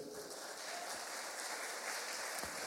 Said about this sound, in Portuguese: Amém? Dá um aplauso bem grande para o Senhor.